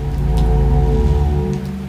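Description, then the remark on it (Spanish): Big raindrops fall sparsely, a few distinct splats standing out over a steady low hum, moderately loud, with no voices. “Grandes gotas se precipitaban, dispersas y perezosas, escandalosas. Era el preludio de una tromba.”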